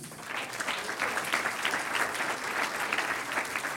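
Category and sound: crowd, audience applause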